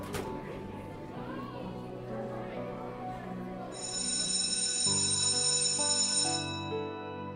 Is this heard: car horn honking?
no